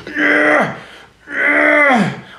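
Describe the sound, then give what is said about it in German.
Two loud, drawn-out straining grunts, each about half a second, with a strained, throaty voiced quality that falls in pitch at the end, a voice imitating men in a gym lying on a bench and pressing a barbell or dumbbell a few times. “Die legen sich auf eine Bank, nehmen eine Langhantel oder Kurzhantel und drücken ein paar Mal und machen die, diese Geräusche”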